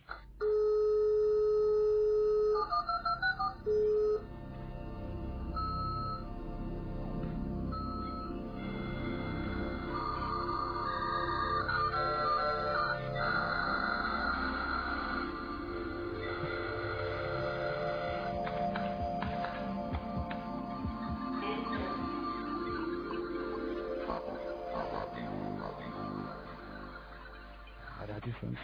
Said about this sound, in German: hier kommt der dritte vorausgewählte Jingle von Chaos Radio Hörern